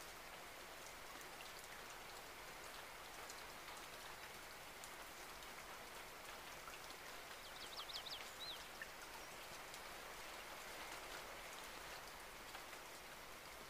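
Steady rain falls in a dense, even hiss of pattering drops that holds at a constant level throughout, with a brief faint bird chirp partway through and no voices.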